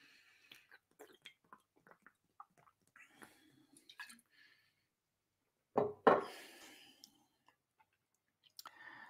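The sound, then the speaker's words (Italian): Someone takes a sip of water: faint clicks and small mouth noises, then one louder wet gulp and swallow, with no talking. “Aspettate, faccio un sorso d'acqua.”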